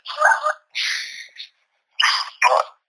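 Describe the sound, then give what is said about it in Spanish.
Dogs bark in a short run of four harsh, clipped yelps with brief gaps between them, fairly clear but thin-sounding, with no talking. “como ya terminamos la sesión, los perros están ladrando un poquito menos”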